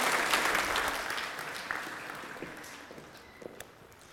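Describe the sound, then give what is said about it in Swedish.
An audience gives a big round of applause to children who demonstrated the armour of God, a dense wash of clapping that starts strong and gradually thins and fades, with a few scattered individual claps standing out toward the end. “Vi ger dem en stor applåd och så låter vi dem gå och sätta sig.”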